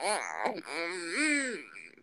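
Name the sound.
baby fussing and whimpering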